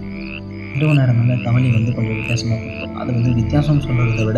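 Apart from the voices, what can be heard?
frogs croaking at night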